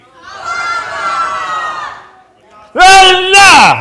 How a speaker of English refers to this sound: Count of three, you're going to shout out, speak out the name of the woman you feel has had the greatest impact in culture. On three. One, two, three.